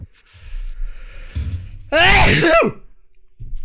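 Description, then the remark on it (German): A single loud, explosive sneeze bursts out, preceded by a faint breathy intake and quiet background noise, with a brief laugh. “Ja, Gesundheit.”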